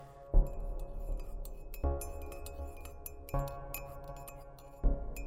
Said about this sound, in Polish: Popełnił ponadto przy mojej osobie błąd niewybaczalny, mianowicie mieszając herbatę, którą mu podałem, tłukł niemiłosiernie łyżeczką o brzegi szklanki.